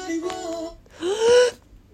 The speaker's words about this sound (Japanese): 息を吸う音がねここがたまんないんですよもう一回いいものはもう一回。めっちゃ良くないですかそう大好きもの息吸うところそうでも本当に歌声が綺麗ですよねそう普通に上手に歌ってくれるからいいんですよねそう